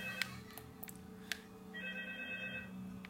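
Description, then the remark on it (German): A faint electronic telephone ring from a video game, with a buzzy, warbling tone, plays over a low steady hum, along with a few sharp clicks. The phone cannot be hung up in the game. No one speaks. “Mann, ich hasse das, man kann das Telefon halt hier nicht auflegen.”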